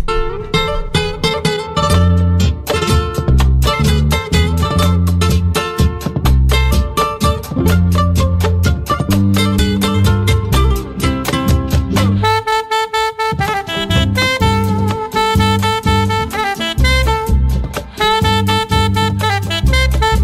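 A Peruvian criollo song with a female singer plays loud and full throughout, strummed accompaniment driving a steady rhythm, with a brief softer break midway before the music surges back.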